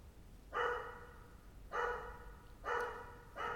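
A dog barks four times at a steady, unhurried pace, each bark sharp and bright, over a low background hum with no one talking; the dog barks like this every morning.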